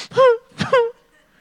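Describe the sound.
A voice imitates crying: two short, wavering sobbing wails in quick succession, each breaking off abruptly, fairly loud, followed by near silence.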